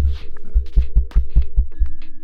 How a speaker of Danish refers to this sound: Vil du prøve at banke på mikrofonen